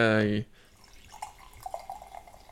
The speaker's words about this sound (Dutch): Hij schuimt niet. Nee, het is echt gewoon cola schuim wat hier uitkomt. Je hoort het misschien ook wel op de opname.